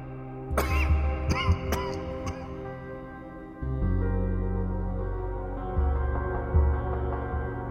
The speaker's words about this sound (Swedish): Skrattet följdes av en hostattack.